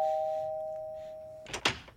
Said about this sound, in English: Mayor West, what are you doing here? I'm being a rascal and ringing people's doorbells and running away.